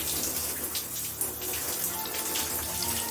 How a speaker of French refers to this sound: Au bout, sa salle de bain. Il entre, laisse la porte ouverte et prend une douche 5-6 minutes durant.